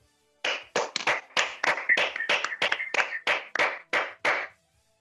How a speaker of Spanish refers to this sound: Muchas gracias. ¿Podemos dar un aplauso? Le podemos dar un aplauso ahí.